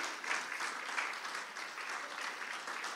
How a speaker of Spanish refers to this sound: Démosle un aplauso a nuestro Señor. Amén.